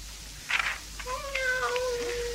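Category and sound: animal, cat meowing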